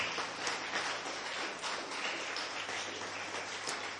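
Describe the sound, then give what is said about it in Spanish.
A crowd claps steadily for about four seconds, giving applause to the Lord after a prayer: a dense, even crackle of many hands with no pauses, joined by a faint low hum and no voices. “Ahora regáleme un aplauso para el Señor, por favor.”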